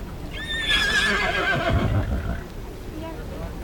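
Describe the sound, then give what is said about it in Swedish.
A horse gives a loud whinny lasting about two seconds, its shrill, wavering call sliding downward, with a low rumble and faint hoof sounds around it. “Han stjäl en häst.”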